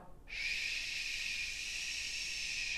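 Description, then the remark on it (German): A long, steady hiss of breath pushed out slowly through the teeth in a breath-support exercise to slow the airflow, starting abruptly and holding an even, bright sibilant tone for over two seconds with no talking. “Wir müssen den Luftfluss verlangsamen.”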